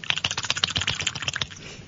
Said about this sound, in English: Right, here we go. I'm shaking it. Are you sure that you sure that's the eight ball you're shaking? Because it sounds very much like.